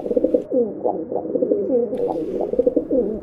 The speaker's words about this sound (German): Aber wir wollen uns aus diesem gegebenen Anlass einmal mit einem dieser Angstviecher beschäftigen, nämlich dem Vogel der Woche, der flumpenden Haustaube.